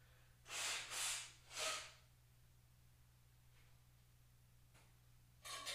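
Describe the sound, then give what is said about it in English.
Someone blows their nose in three quick, breathy honks after sandalwood and cinnamon incense irritated it, then goes quiet; another short blast of air comes at the very end. A faint, steady low hum runs underneath, and nobody speaks. “All right, I had to I had to go blow my nose there real quick because I, I lit an incense before recording this episode, and it's a sort of sandalwood and cinnamon incense, and it just started hitting my nose out of nowhere.”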